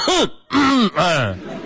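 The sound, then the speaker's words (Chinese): A voice fakes a few throat-clearing coughs: three short, voiced, groan-like bursts with a falling then rising pitch, loud and back to back, with no other talk. “来，我们再说第二个方法，去药店买一盒头孢啊，吃饭的时候呢就把药摆在桌子上，时不时的咳嗽两声。”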